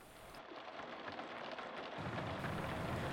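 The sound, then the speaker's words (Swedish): Steady rain drums on the windshield of a van driving along a flat motorway, a dense continuous patter that grows heavier and fuller, with a low rumbling undertone joining partway through. No voices are heard. “Under färden hörde jag smattret av regn på rutan, blåsten från AC'n som jag var tvungen att ta på för att hålla imman borta från rutan.”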